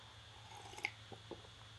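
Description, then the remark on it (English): A quiet sip of a warm drink: a few small wet mouth clicks and a soft slurp over a faint, steady background hum, with no talking. “and the UFC recap will be on to the UFC breakdown as I take a sip here.”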